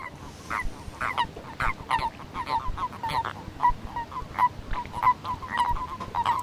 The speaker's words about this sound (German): Erdkröten sind das, was wir hier hören. Aber es ist leider nicht ein toller Frühling für die armen Tiere. Es ist absolut kalt.